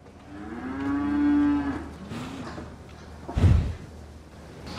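A cow, almost entirely black with a white belly, lets out a long moo that rises and holds for nearly two seconds, followed by a shorter low call, then a dull thump like a gate or door in a barn.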